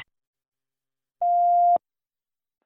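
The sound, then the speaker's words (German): A single answering-machine beep: one steady, clear electronic tone lasting about half a second, sounding alone against silence, with brief faint noises at the very start and end. “Bitte hinterlassen Sie nach dem Ton eine Nachricht.”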